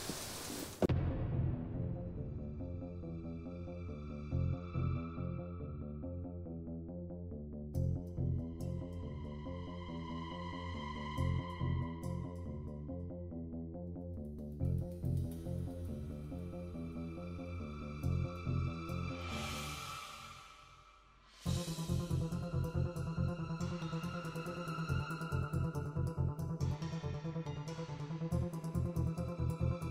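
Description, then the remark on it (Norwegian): A short instrumental break plays with no one talking: layered, steady electronic tones at an even loudness, then a rising whoosh and a denser, pulsing section near the end. “Men nå skal vi ta en kort liten pausetone”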